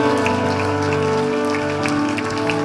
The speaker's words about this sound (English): Can we give our King a clap offering and a shout?